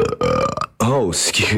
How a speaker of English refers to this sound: I have to burp. Hold on.